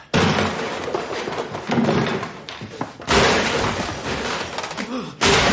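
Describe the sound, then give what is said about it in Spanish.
A chair gets kicked hard: loud, heavy bangs at the start, midway and near the end, with rattling and scraping clatter filling the gaps between the blows. “Patea una silla.”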